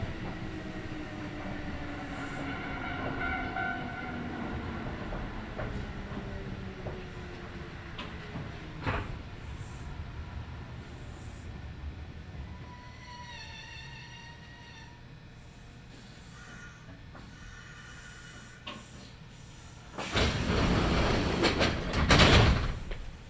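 A Kintetsu Nagoya Line local train, running from Shiohama toward Shiroko, rumbles along the rails with descending motor whine and steady wheel clatter, then slows to a low hum before a loud burst of hissing air and clunking as doors operate.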